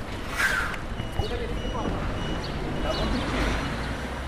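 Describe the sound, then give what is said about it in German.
A heavy 40-ton truck from Italy, delivering donations for Ukrainian refugees, rumbles low and steady as it slowly parks in the back courtyard of a shopping complex in Bayamare, its engine noise filling the scene while indistinct voices murmur in the background. “Ein 40-Tonner Hilfsbereitschaft parkt auf einem Hinterhof eines Ladenkomplexes in Bayamare ein.”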